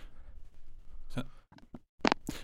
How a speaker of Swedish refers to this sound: Wow, jävlar jag drog micken i golvet.